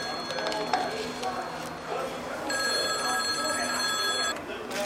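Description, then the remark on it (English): A telephone rings with a bright, steady warbling tone in one sustained burst of about two seconds, clear above a busy, rumbling background. “Hand me that phone.”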